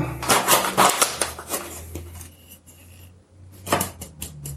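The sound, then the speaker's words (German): Quick, light metallic taps on a sieve as flour is sifted, a rapid cluster of knocks, then a pause before a shorter burst of tapping, over a steady low hum. “Genau, dran klopfen, dann, wenn das Mehl gesiebt ist, dann ist das schön locker und fein, dann sind auch keine Brösel drin oder sowas.”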